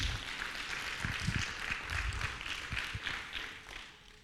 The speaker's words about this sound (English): If you're going to clap, give him a good clap this morning.